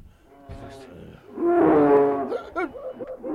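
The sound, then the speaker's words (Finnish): A polar bear lets out a deep, rumbling roar that swells loud for about a second, followed by a few shorter, rougher grunts. “Jää karhu se on.”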